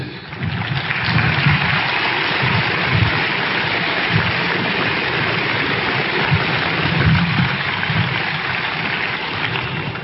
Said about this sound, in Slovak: Ďakujem za potlesk